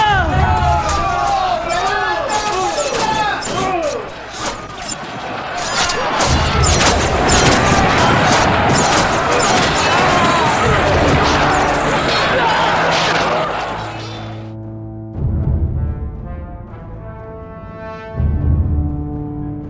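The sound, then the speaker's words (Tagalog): Loud, dense battle noise for about fifteen seconds as archers rain a volley of arrows on the enemy: a barrage of whooshing, clattering impacts and crashes over a roaring crowd, then the din cuts off and sustained music tones take over. “Mga kaawal, ihanda ang mga manunodla at paulanan ng mga palaso ang mga kalaban na lumalaban pa at tugisin ang mga nagsitakbuhan sa laban!”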